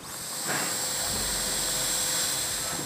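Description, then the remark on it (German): A surgical drill whirs steadily for a few seconds, boring screw holes in bone to fix an implant cup, a continuous high-pitched buzzing with a hissy edge that starts abruptly and holds an even level, with no one talking. “So, jetzt werde ich Schraubenlöcher für die Fixierung der Pfanne bohren.”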